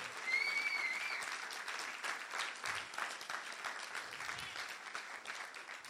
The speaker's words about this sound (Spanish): Solo cuatro aplaudieron, cinco, seis, gloria a Dios.